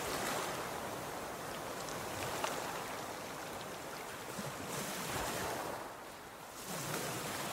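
Ocean waves crash against the coast with a roar in a continuous wash of surf, with swells rising and falling over several seconds and strong, persistent wind blowing steadily through, no voices present.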